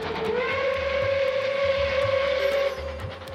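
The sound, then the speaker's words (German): A loud, sustained train whistle blares steadily for about three seconds over the low rumble and rhythmic clatter of a runaway train in India, rolling without its crew after its brakes released at a station on a slope, with no voices. “Gestoppt werden konnte dieser Geisterzug dann auf ganz traditionelle Art und Weise.”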